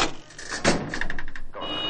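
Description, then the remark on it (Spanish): A refrigerator door swings shut with a solid thud, followed by a brief rattle of items inside and then a steady low electrical hum. No one speaks. “Cierra la nevera.”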